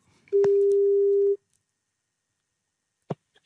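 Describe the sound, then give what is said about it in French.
A telephone ringing tone of a call placed live on RTL radio: one steady, mid-pitched electronic beep lasting about a second, followed by silence and a short clunk like a line picking up. “On va tenter d'appeler et peut-être de réveiller”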